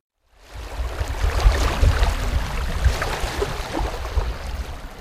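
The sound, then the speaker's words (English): Flowing water of the St. Lawrence River in Canada rushes steadily after a brief moment of silence, with a deep low rumble beneath a broad wash of splashing and churning. It is fairly loud, and no one speaks. “That's the sound of the St. Lawrence River.”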